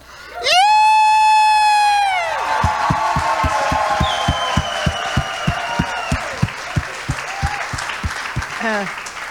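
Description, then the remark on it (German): A crowd at a worship service lets out a loud, sustained cheer, then breaks into steady rhythmic clapping in unison as a clap offering to God, about three claps a second, with whoops and crowd noise continuing underneath. “Gebt dem Herrn ein ordentliches Klatschopfer.”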